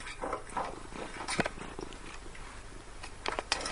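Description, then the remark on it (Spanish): A cat purring, a soft continuous rumbling texture with a few brief sharper sounds scattered through; no one speaks. “Es un gato.”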